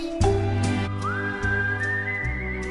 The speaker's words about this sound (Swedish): har samplat det här visslingen i en av sina låtar